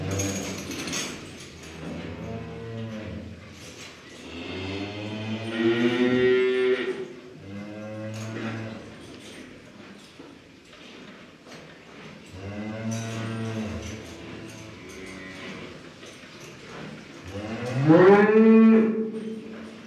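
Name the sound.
dairy cows mooing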